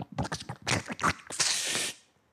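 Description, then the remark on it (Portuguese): A quick run of wet, rhythmic gulping sounds, fairly loud, as someone gulps down two liters of water, ending in a breathy, hissing exhale before fading to silence. “Aí pega dois litros de água, tem que beber dois litros de água. Aí, blum, Olha a sonoplastia.”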